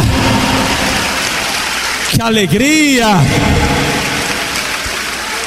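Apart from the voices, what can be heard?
audience applauding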